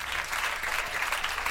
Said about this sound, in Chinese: 好，鼓掌，对，因为这是一个现场。